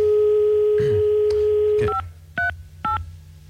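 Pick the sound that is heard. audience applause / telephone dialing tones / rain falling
telephone dialing tones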